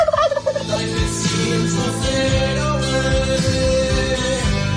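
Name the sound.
turkey gobbling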